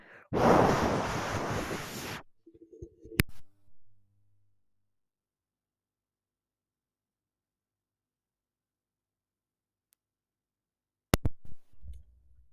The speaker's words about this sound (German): Nure NW 800 Windtest. Von oben Windtest von hinten Windtest.